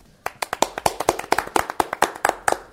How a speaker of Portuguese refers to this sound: Salva de palmas.